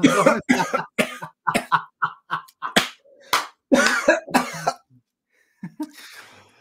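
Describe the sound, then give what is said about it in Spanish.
A rapid fit of harsh, choking coughs, a dozen or so sharp bursts in quick succession, loud and alone, trailing off into a couple of faint, wheezy coughs after a short pause. “No te ahogues, amigo.”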